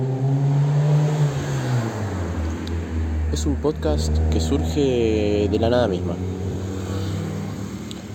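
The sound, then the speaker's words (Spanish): A steady low engine rumble from passing traffic runs under a man speaking on the balcony of his house, with a car and a motorcycle droning outside in the background. “como pueden ver, se escuchan los ruidos del auto, se escuchan los ruidos de la moto.”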